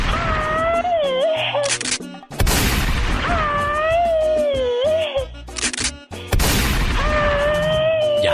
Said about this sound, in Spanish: es que esos plomazos me atraviesan de lado a lado.